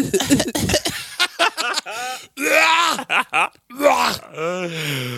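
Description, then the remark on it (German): Harsh coughing opens with a rough burst, then a string of short throat-clearing hacks, followed by strained, drawn-out groaning vocal sounds. “Äh, Hust mal.”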